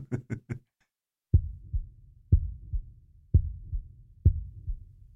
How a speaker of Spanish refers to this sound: Pero el corazón siguió latiendo, con un sonido ahogado. Claro que no me preocupaba, pues nadie podía escucharlo a través de las paredes. Cesó por fin de latir.